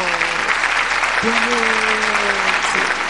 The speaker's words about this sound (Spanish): Es que me encantan estos aplausos falsos enlatados, que son súper cool y me encantan.